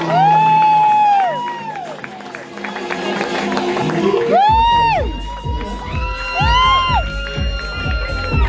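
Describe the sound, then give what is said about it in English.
A loud crowd at a runway fashion show cheers and shouts for several seconds as a model is called to the runway, with high whoops and excited voices rising over a steady roar, plus a few scattered claps mixed in. “So make some noise for Kirsten.”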